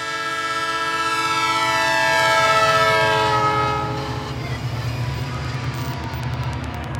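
A train rumbles steadily along the tracks while a loud, sustained horn blares over it, swelling and then fading as the rolling rail noise continues on its own.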